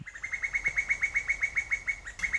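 A female cuckoo's bubbling call: a fast, even run of about fifteen bright, liquid notes pouring out in quick succession, clear, with no voices.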